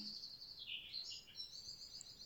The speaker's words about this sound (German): die Vögel zwitschern, kurz bevor sie gleich schlafen.